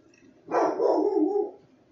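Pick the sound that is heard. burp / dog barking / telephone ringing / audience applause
dog barking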